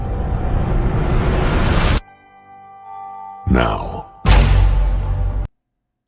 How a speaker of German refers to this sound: Das war der offizielle, das offizielle IMAX-Intro.